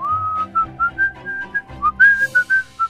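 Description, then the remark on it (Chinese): Someone whistles a cheerful tune while swaggering home with two animals in a net slung over the shoulder; clear, bright notes, some held and some short, the melody rising and falling at a steady, jaunty pace. No one speaks. “胡老大把网子往肩上一甩，背着两只动物，吹着口哨，大摇大摆地走回家。”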